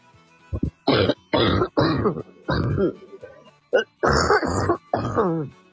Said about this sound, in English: just a stupid uh, cough that I haven't been able to get rid of. Yeah, no, the cough is really annoying, isn't it? Yeah. Really annoying.